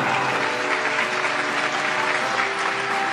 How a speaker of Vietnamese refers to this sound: Có thể vỗ tay cho nghe được không ạ?